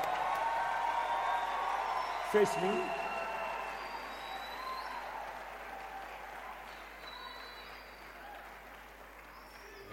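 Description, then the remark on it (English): A church audience claps steadily for 15 pastoral appointees as they step forward to the front, a dense, sustained wash of applause lasting the whole stretch, with a brief spoken phrase and a faint whoop cutting through near the start. “Oh, go ahead and clap. Go ahead and clap for them.”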